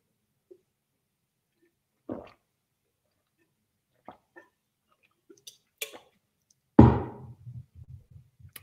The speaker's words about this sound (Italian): Scusate, bevo un po' d'acqua.